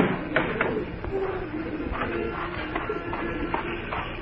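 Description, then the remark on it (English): Pigeons being fed on a roof coo softly and steadily while a few brief wing flutters break through, all set against a dense, continuous outdoor rumble that nearly buries the birds. “I was just feeding the pigeons.”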